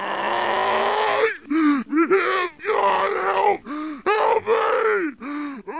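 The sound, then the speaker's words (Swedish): Creatures taken over by aliens in a film let out a series of loud, guttural roars and groans, one long bellow followed by shorter, strained, arching cries in an irregular rhythm, harsh with no speech. “Tydligen så, eh, det här hade jag ingen aning om, men det har jag läst mig till, att om man tar det här ljudet som eh, de här eh, varelserna liksom vrålar ut och spelar upp det baklänges, så hör man att de skriker något i stil med Help, God, help me.”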